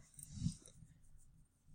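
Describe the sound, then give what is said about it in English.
A dog lying on someone's foot lets out a short, soft whimpering grunt, followed by quiet breathing-like rustle, with no one talking. “Sorry, my foot's numb because my dog is on it.”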